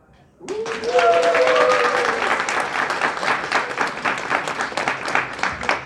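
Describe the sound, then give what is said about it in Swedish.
A crowd bursts into loud, sustained applause with cheering and a few whoops rising over dense clapping for several seconds, as an audience welcomes contestants onto a stage. “Så det jag skulle vilja när vi tar in våra deltagare på scenen så tar ni i från tårna och välkomnar dem.”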